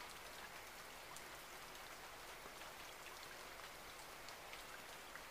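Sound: rain falling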